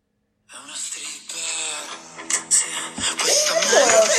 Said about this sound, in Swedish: Men vi har alltså italiensk rock ifrån San Marino och den låter så här.